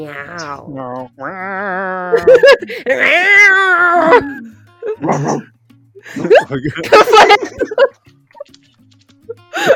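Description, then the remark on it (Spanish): Someone imitates a cat with a string of drawn-out, gliding meows, loud, with short pauses between the calls and a few squeaky, strained ones near the end. “La, la rebelión de los gatos. Empezará mm. pronto.”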